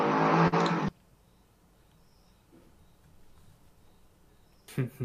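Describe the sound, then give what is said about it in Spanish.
A loud motorcycle roars past at the start and fades abruptly, leaving quiet street ambience before another engine surge rises at the very end. “Perdón, Perdonen, pasan motos y mierda.”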